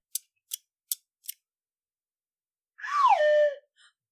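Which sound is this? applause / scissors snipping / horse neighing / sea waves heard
scissors snipping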